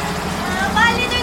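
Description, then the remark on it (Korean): A tour bus pulls away from a hotel: a low, steady engine rumble with a whining tone that rises briefly over about a second, and a faint murmur of voices underneath. “버스가 떠나고 20대 초반의 여자 가이드가 일행을 호텔 안으로 들여보냈다.”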